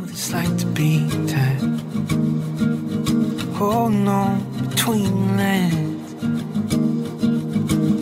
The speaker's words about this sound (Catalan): doncs aquesta música que sona, sona bé mentre anem jugant, doncs l'anem escoltant de, de fons.